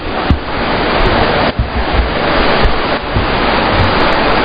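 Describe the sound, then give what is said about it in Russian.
Heavy, noisy rain pours down in a dense, steady hiss that stays loud throughout, with faint irregular thumps and no voices. “Услышим ли мы друг друга во время дождика? Во время такого шумного?”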